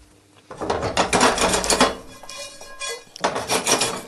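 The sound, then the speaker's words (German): Almonds being stirred and turned in a hot frying pan so they roast evenly, the heat already switched off: two bursts of dry rattling and scraping against the metal, separated by a brief lull, with no talking. “Denkt dann wenn die Pfanne jetzt heiß ist”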